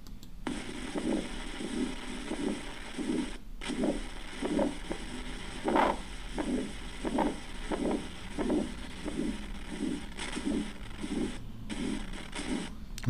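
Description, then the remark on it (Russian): A heart murmur from aortic stenosis: steady, close-up heartbeats, each with a rough, harsh whooshing noise, and one beat arriving out of rhythm as an extra beat. No voices. “слышали экстрасистолу? Шум у аортальном стенозе.”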